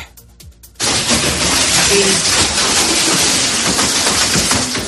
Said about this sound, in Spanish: Lluvia y como escuchas, granizo durante esta pasada tarde en varios puntos del Levante, en localidades como Benagoafil. Este granizo ha provocado daños materiales en el Polideportivo Municipal con agujeros en el techo